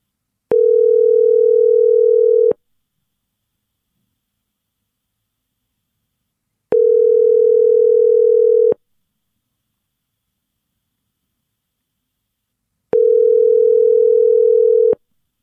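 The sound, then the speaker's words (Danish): A phone call to a man fighting in a war for his country goes unanswered: three steady, two-second ringback tones spaced by long silences, clear, with no voices. “Det lader ikke til, at, øh, at din far han, øh, han kan svare.”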